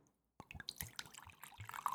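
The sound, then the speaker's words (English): After a brief silence, wine glugs and splashes into a glass, a steady, bubbly pour with small irregular drips and gurgles, no voices. “If you can hear the pouring, that would sound very good.”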